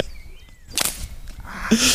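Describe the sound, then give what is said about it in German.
A whip is swung once in an attempt at a whip crack, the swinger waiting too long so the lash drops down behind, cutting through the air with a sharp whooshing snap, followed by softer rustling and handling noises; no one speaks. “Im Prinzip musst du warten, bis die Peitsche hinten auf 90 Grad von der Peitsche wegsteht.”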